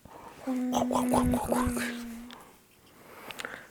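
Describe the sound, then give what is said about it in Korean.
A voice imitates water pouring into a bronze bowl with a sustained, steady humming tone and a few quick rippling bursts for about two seconds, then fades to quiet room noise. “물 채우는 소리 해주세요.”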